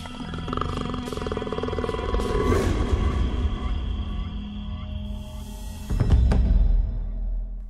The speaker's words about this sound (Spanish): Y desde la tierra aparece al acecho Balam, un jaguar que lleva en su piel a las estrellas.